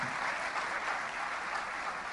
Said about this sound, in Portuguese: Acho que já quebra um pouco do gelo, né? Quer dizer, esse aplauso quer dizer: estamos com vocês, já passamos por isso, sei o que é estar aí.